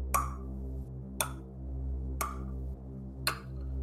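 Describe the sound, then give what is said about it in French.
A clock at the back of a room ticks steadily, four sharp clicks about one second apart, fairly faint against a low continuous hum during a moment of silence. “t'avais pas capté, mais en fait euh, il y, a une, horloge au fond de cette pièce.”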